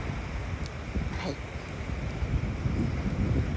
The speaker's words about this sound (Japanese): はいではね視線を海の方に移しましてはい今日はねあの昨日よりもあのちょっとあのゆったりめの波となっておりましてはいなんかねとってもねあのいい感じで波がね来ています